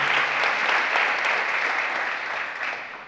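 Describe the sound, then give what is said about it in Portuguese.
An audience claps steadily in a dense, continuous burst of applause that holds strong for about three seconds, then begins to thin and fade at the end. No one speaks. “Você podia aplaudir.”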